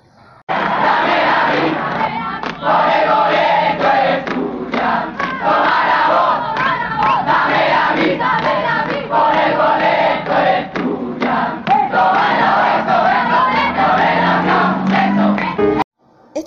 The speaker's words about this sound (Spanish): Bueno, para finalizar este programa, introduciremos un audio de la última huelga que tuvieron estos chicos por el boleto estudiantil.